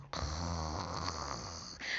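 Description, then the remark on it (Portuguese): A grandmother snores in a cozy bed: a single loud, drawn-out snore, rough and rumbling, fills nearly two seconds, with a brief breathy tail at the end and no talking. “Nessa cama tinha uma avó, uma avó roncando”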